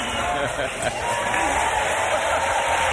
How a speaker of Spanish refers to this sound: Te están aplaudiendo mucho. Yo no sé si esta gente lo que quiere es una entrada gratis, ¿eh? cuidado, cuidado que no regalan un aplauso estos, ¿eh?